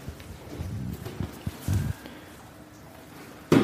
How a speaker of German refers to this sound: So, jetzt gehe ich mal hier runter. Also ich muss ja erstmal durchs Treppenhaus nach unten zur Tür laufen.